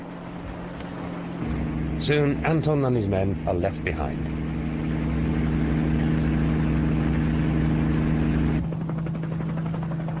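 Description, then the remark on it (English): A helicopter engine drones steadily in flight, a loud, low whirring hum with a constant pitch that continues throughout, while a man speaks briefly over it near the start. “Astrid flies on, keeping an anxious eye on the helicopter's instruments.”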